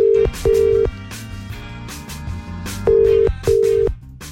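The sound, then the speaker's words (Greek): A phone line rings back while a wake-up call is placed at twenty to eight in the morning: two loud double-pulse rings, about two seconds apart, over a steady bed of background music with no one speaking. “Πάμε στο επόμενο wake up call.”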